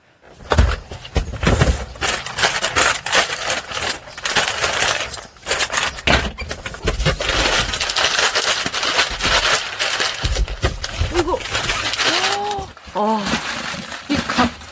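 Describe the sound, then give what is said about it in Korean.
Dry dog kibble being handled and sorted at a dog food dealership before it goes out for delivery: a loud, continuous rattle and crunch of hard pellets shifting and pouring, with brief pauses and a short tonal squeak near the end. “오늘은요, 강아지 사료 대리점에서 배달 나가기 전에 사료 정리하는 소리 보내주셨는데요.”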